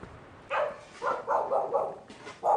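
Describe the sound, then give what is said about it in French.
A small dog barks about six times in short, yappy bursts at Finiel, on the road to Le Pont-de-Montvert, a lone bark followed by a quick run of several, then one more after a pause, with no talking. “Finiel, même nom que le sommet qui est là-haut, un petit chien à bois, ça fait pas peur”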